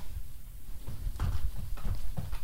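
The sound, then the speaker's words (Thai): Rhythmic, soft thumping of feet stepping in place as a warm-up before exercise, a steady series of muffled footfalls like light jogging on the spot, with no voices. “ขยับเท้าเอาทำทำเป็นวิ่งทำวิ่ง รู้สึกอะไรไหมก็รู้สึกว่ามันรู้สึกว่ามันได้แตะใช่ไหมเออรู้สึกมันแตะการขาใช่ไหม”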